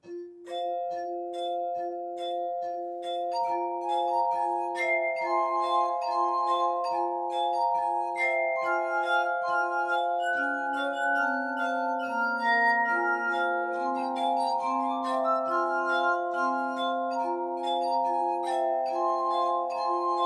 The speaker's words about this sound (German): Und bis dahin spielen ein paar Musiker Glasmusik.